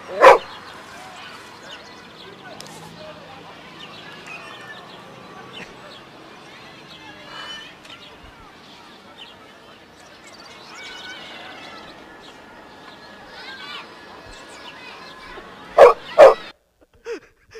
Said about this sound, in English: cute dog.